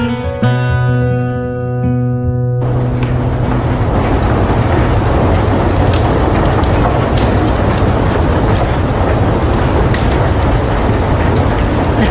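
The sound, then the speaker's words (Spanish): Steady, loud rain fills the scene with a dense hiss and scattered sharp drips, following a brief sustained tonal hum at the very start. No one speaks. “Sí, con lluvia.”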